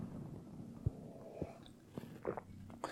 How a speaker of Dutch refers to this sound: ik neem even een slok